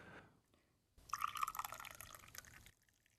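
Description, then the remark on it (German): Tea poured from a thermos flask, held about half a metre above, into a tea glass: a steady splashing stream lasting under two seconds, its ringing pitch rising as the glass fills, then stopping abruptly. No voices. “Mit, mit, mit einer bestimmten Kanne in großem Schwung, ungefähr einen halben Meter von oben.”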